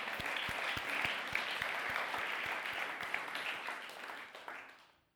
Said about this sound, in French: Est-ce qu'on peut applaudir le roi des rois, le Seigneur des seigneurs